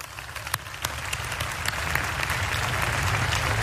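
An audience breaks into applause, scattered claps at first that quickly swell into a dense, steady wash of clapping, growing louder and holding strong to the end.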